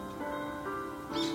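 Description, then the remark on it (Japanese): Birds perched on a nearby antenna chirp in a steady stream of high, thin whistles, swelling into a brighter, louder burst of calls toward the end, with no talking. “なんか私の喋りに負けないぐらい鳥が鳴いてるんだけど すごいピーピー”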